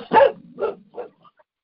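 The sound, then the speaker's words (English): A dog barks three times in quick succession, the first bark loudest and the next two softer and shorter, with no talking. “Sorry, my dog's freaked out.”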